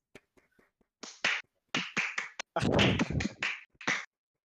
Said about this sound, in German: Ein Applaus bitte. Einmal alle klatschen.